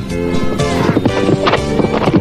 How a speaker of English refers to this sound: Now, now, could you get your horse off my foot? Giddy up.